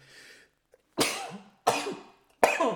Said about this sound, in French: Ah, moi j'éternue toujours plus de fois.